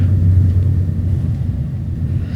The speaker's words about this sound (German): Ich bin auf dem Weg von Frankfurt zurück nach Bern und im Zug unterwegs.